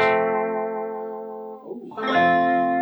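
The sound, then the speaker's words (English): A sustained, slightly distorted electric guitar chord rings out as the player gently cradles the whammy bar, barely touching it, dipping its pitch and letting it swell back up for a soft, wavering vibrato. A brief vocal exclamation is heard. “So you you know you you're literally cradling the bar there.”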